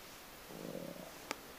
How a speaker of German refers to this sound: Mein Magen knurrt, ja, das ist gut, haben wir eine kleine Geräuschkulisse.